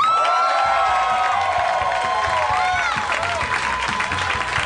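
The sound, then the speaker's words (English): A loud audience cheers and applauds continuously as a guest comes out on stage, with whoops and shouting voices rising over dense clapping for the whole stretch. “That was a louder cheer.”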